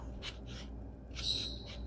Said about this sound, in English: And we're cutting. Probably should have used the longer scissors. Oh well, there we go. And we're through.